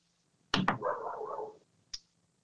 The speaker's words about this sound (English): that is a dog barking in the background, not some weird noises coming through.